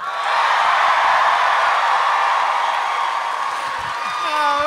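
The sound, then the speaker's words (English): A live audience cheers for Justin McElroy as he introduces himself at the start of a live show, a loud, steady roar of many voices that holds for several seconds, with a few higher whoops and shouts rising out of the crowd near the end. “Travis fucking waited until Justin's cheer died down, so there was no cross pollination.”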